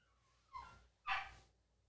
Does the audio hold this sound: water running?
no